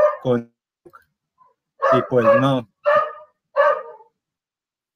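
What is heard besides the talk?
small dog barking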